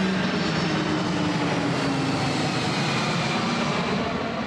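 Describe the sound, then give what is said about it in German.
A loud, low-flying airplane on the approach path into Leipzig airport roars overhead, its engine drone filling the whole clip with a steady, broad rumble and a faint whine on top. No one speaks. “versuchen, diesen infernalischen Lärm, den wir jetzt gleich hören werden, etwas gering zu halten”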